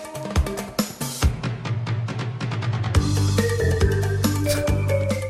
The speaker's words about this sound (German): Ist wieder diese komische Jahrmarkt-Synth. Ich habe keine Ahnung, was das für eine Synth ist.